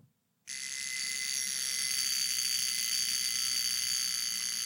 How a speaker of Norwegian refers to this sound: Så nå har jeg trukket ut alarmen.